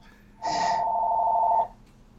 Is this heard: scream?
no